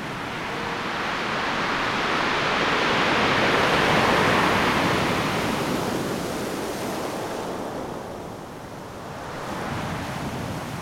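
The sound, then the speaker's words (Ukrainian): Rough sea surf roars continuously during a strong storm at Mariupol, big waves surging and crashing in a dense wash of noise that swells to a peak midway, eases, then builds again. Wind gusts mix in; no voices. “Але одного разу в Маріуполі стався сильний шторм. Море підіймало шалені хвилі, які досі не бачили жителі міста Марії.”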